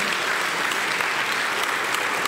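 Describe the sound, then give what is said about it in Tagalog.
A church audience applauding loudly for the Lord during a service, a dense, steady wash of many hands clapping at once, sustained without a break and with no voices rising above it. “Sige po, isang malakas na palakpak sa ating Panginoon.”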